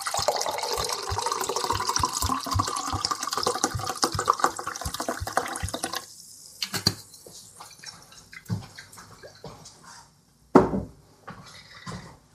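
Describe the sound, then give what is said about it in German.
Apple wine (Äppelwein) glugs steadily into a ribbed Geripptes glass for about six seconds with a rhythmic gurgle, then stops, leaving a few faint drips and a couple of sharp glassy knocks. “So, und noch was in mein Geripptes.”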